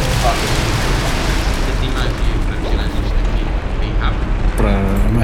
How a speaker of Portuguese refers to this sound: ouvem um grande estrondo. Vocês percebem que o castelo do Bel tá desmoronando.